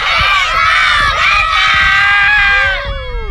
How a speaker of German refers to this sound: Ähm, wir hören ja gleich auch nochmal den Jubelschrei der Mannschaft.